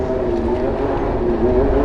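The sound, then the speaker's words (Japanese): A motorbike comes along and passes by, its engine droning steadily, a low rumbling hum with a buzzing tone that holds at an even, fairly loud level throughout the short stretch. “おっとバイクが来ましたやっぱり定番ですねこの時間はい通り過ぎましたあの今回のバイクはえっ、ー、といつもの人とちょっと違かったですね”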